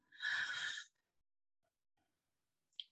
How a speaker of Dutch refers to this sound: Nou, dan hoor je mijn ademhaling, dan ga ik nu al direct terug in mezelf van, maar waar word ik blij van?